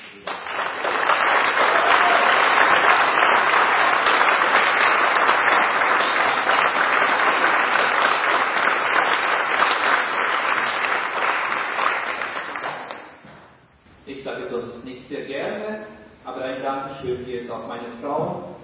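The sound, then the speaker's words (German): Sustained audience applause for the children at a church service goes on for about thirteen seconds, dense and steady, then fades as a man begins speaking. “Und ich denke, auch die Kinder haben jetzt nochmal einen Applaus verdient.”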